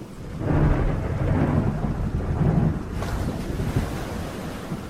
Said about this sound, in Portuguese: Entretanto, nossa viagem estava fadada ao desastre pois uma segunda tempestade desabou sobre nós.